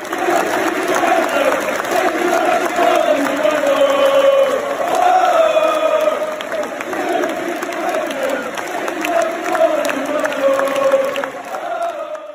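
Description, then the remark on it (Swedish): A large stadium crowd of Cardiff fans chants in unison as a tribute to an English league football player who died in spring 2020, a sustained melodic singing that rises and falls in long phrases, loud and steady throughout with a broad roar underneath. “Men eh, Cardiff-fansen, det här hände ju då i våren 2020, mm. gick han bort. Så de har ju inte haft eh, möjlighet att eh, hylla honom.”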